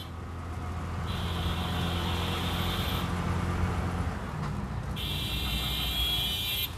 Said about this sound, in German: Im Zeitalter der Städte Verkehrslärm.